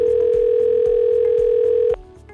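A steady electronic telephone ringing tone sounds loudly for about two seconds as a call to ProduMedia's voice response system waits to connect, then cuts off abruptly, leaving a faint rhythmic background underneath.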